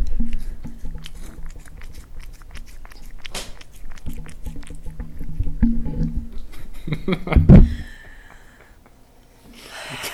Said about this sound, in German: Jetzt habt ihr ein bisschen Katzenschlabbern im Hintergrund. Quality Content.